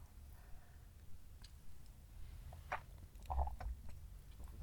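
Quiet sipping of coffee, a couple of short slurps and soft mouth clicks over a low background rumble, with no one talking.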